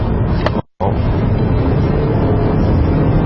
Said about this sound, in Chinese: 哦，这种情况下，除了它的变速箱确实需要一定的反应时间之外，这个发动机转速升高带来的噪音也有些明显的增加，而且后半程的加速力道怎么说呢？属于那种呃轻盈的。